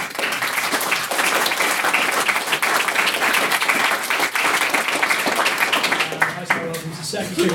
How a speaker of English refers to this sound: Uh, can I get another round of applause for our, our maiden speaker this evening?